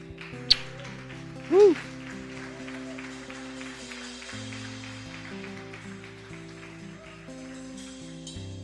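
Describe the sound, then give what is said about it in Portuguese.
An audience at a worship service claps steadily throughout as applause to God, a dense crackling applause over sustained keyboard chords, with a brief shout from a voice early on. “Vamos dar uma salva de palmas a Ele.”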